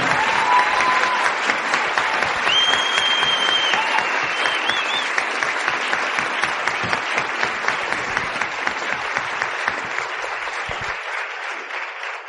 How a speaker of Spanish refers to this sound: Ese aplauso es para ella, no es para mí.